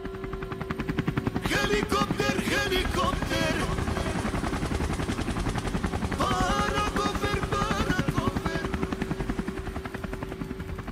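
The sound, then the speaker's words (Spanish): A police helicopter passes low overhead, coming out of the clouds, its rotor blades thumping in a rapid, steady chop that stays loud and constant for the whole stretch. “En eso un helicóptero de los Pacos se asomó por las nubes. Venía bajito, así que de mal lo alcanzaba a ver.”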